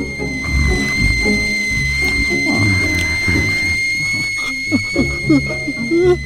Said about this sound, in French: Là, elle se déverse d'un seul coup dans le récipient du bas. Elle va chasser l'air qui s'échappe par le sifflet.